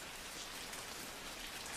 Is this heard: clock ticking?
no